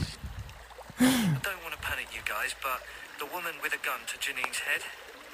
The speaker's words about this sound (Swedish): och lyssnar till det porlande vattnet den, eh, den forsande ån. Kan en, kan en ån vara forsande? Då är det ju en fors, eller? Är det bara jag? Eller en, en ånande fors? Jag har ingen aning, men det är vatten i alla fall. Och eh, vi lyssnar lite.